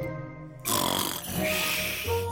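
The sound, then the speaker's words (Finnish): Loud, raspy snoring of bears sleeping through the winter in a cave begins abruptly after a brief quiet start: a long rumbling, snorting inhale that swells, dips, then rises again into a deep grunting breath. No talking. “Jörökarhut nukkuivat talven ja heräsivät, kun ei saa häiritä kyltti tipahti maahan.”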